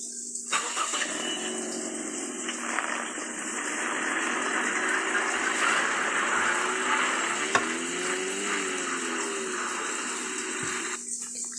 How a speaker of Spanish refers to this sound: Se suben al auto y Carl lo enciende.